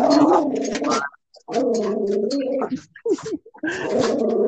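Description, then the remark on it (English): A dog is going nuts, letting out a string of loud, drawn-out whining, howl-like cries in several bursts separated by short pauses, with no talking. “your dog going. Um, yeah, he's going nuts right now.”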